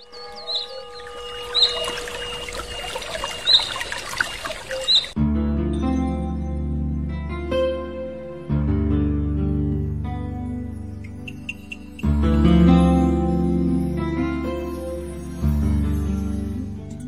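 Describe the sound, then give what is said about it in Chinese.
Rainforest ambience opens with dense, layered chirping of birds and insects for a few seconds, then gives way to loud, low, sustained music chords that shift every few seconds. “听，这来自雨林的声音。”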